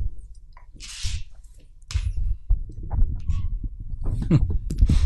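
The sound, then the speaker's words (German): Two dogs scuffle and play-fight: irregular thumps, rustling and snuffling bursts, with a sharp hissy puff early on, growing busier and louder toward the end. “Den Hund hört man.”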